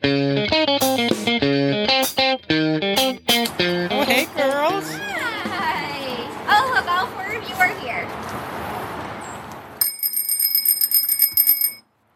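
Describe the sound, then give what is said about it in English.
A bright bell, rung by zookeepers to call trained zoo animals inside, rings in a quick series of loud strikes. Warbling, chirpy calls follow, then a sustained high ringing tone near the end. “This is um, our bright bell that they're trained to use. So um, we ring the bell and they know to come inside.”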